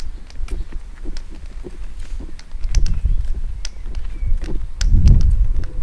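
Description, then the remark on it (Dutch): Steady footsteps walk straight ahead outdoors along the Waaienberglaan heading northwest, at a regular pace, each step a short crunchy thud, with low wind rumble buffeting the microphone in gusts. No one speaks. “En we lopen dus rechtdoor”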